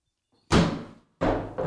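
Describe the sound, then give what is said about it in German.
A refrigerator door is left to fall shut on its own with a solid thump, followed moments later by two more muffled bumps as it settles against the frame. No one speaks. “Ich habe die Tür einfach zufallen lassen.”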